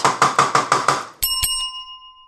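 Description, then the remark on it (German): A kitchen timer set for seven and a half minutes while lentils cook goes off with a quick burst of six rattling rings, then two bright, clear bell dings whose tone lingers and slowly fades. No one speaks. “ich habe mir den Wecker auf siebeneinhalb Minuten gestellt”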